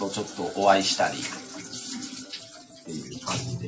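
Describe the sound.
Tap water runs steadily in the background as dishes are washed, with occasional clinks, while a person talks casually over it.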